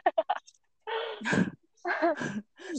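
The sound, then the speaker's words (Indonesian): A cat meows several times: three quick chirpy yowls, then a few longer, drawn-out wavering meows with short pauses between them. “Ini ada kucing suaranya kadang-kadang.”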